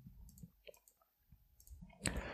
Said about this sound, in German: Das mache ich, da klicke ich mal drauf.